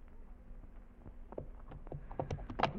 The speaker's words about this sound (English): Now I lead the horses across the bridge, and then I cut the rope so that you cannot follow me.